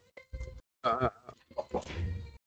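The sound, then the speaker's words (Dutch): A young child being put to bed and not wanting to go cries in a few wavering, bleat-like wails with short breaths between them, moderately loud, with no one talking. “Ja, er wordt, eh, wordt gehuild hier.”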